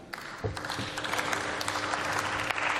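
Sustained applause in a parliament after a speech, a dense steady clatter of many hands clapping with no voices standing out, holding at an even moderate loudness throughout.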